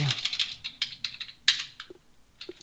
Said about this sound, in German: Okay, dann tippt man nur jetzt ein Jahr.